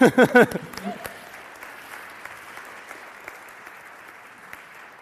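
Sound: audience clapping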